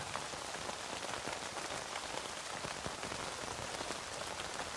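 Steady rain pours down on a tent in a dense, hissing wash, with scattered sharper drops pattering on the tent throughout. No voices, just an even, continuous downpour.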